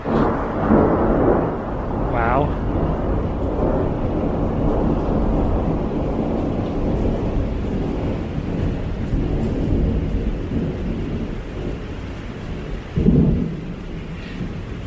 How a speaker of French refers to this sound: Je sais pas si c'est moi, mais j'ai l'impression que quand même ce tonnerre, il dure beaucoup plus longtemps que les tonnerres que je connais. Je sais pas, je suis pas habitué à des tonnerres qui grondent aussi longtemps après un éclair.